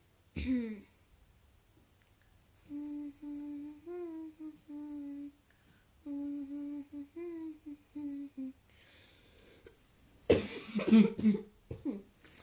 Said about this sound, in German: Muss irgendwie ziemlich krass husten. Keine Ahnung warum, Leute.